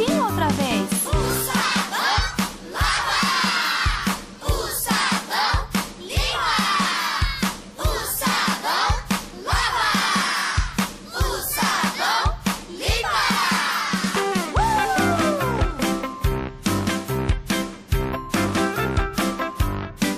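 A song plays loudly and continuously, with melodic singing carried over a steady, punchy rhythmic beat and bright instrumental backing, filling the whole stretch without any spoken talk.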